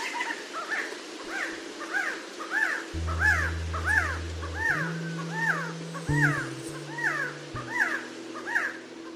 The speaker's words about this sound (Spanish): Lo que acabamos de escuchar es el canto del Quetzal, ave que los aztecas consideraban un símbolo de divinidad